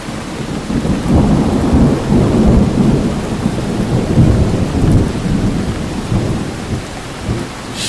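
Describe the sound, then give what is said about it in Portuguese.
Heavy rain pours steadily and loudly while deep thunder rumbles low through it, a continuous stormy roar with no voices. “Gritos terríveis, chuva, muita chuva, sem parar.”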